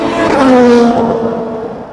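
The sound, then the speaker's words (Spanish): A loud IndyCar race car engine whines at high revs while accelerating through a fast corner entry on a circuit, its pitch holding steady and then dipping slightly as the sound fades a little over two seconds. “Pasó Will Power, perseguido por Canapino y atrás de Canapino Alex Palou. El ingreso es muy veloz.”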